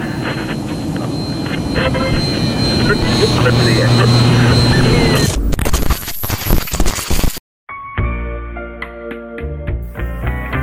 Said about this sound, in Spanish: La vibración se ha convertido en terremoto.